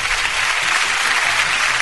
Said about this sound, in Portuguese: uma salva de palmas.